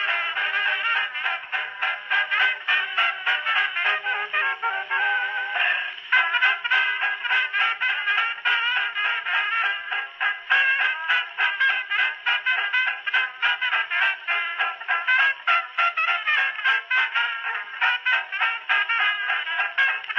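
A 1920s dance band tune plays from an old phonograph cylinder, thin and tinny with a steady bouncing beat, filling the whole stretch at an even volume with no talking.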